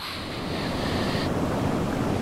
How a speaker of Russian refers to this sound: Но в океане там просто шум волн, летящих, летящих досок и напряжение, как бы вообще оттуда, отсюда выплыть и ничего себе не сломать, там только и сопровождает, что э, звук в этих валящихся волн